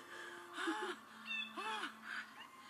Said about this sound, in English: Gosh, that bird just keeps going.